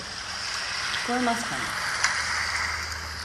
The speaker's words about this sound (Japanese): 割とあの、これは海の音ですけど、あ、でもなんか、セミの声は入ってないみたいで、ちょっと安心しました。あんまり聞こえないですね。